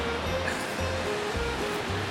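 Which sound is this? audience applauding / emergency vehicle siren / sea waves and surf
sea waves and surf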